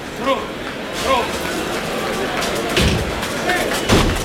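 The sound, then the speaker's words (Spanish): The heavy toril gate of a bullring swings open and slams with a couple of loud banging impacts as the third bull, the first of matador Roca Rey's lot, enters the ring. Steady crowd noise and talking continue underneath. “Ahí se abre la puerta de Toriles para que salte al ruedo el tercer toro.”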